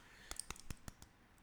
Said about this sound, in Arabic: هذا صوت الجبهة اي تطبيل على الجبهة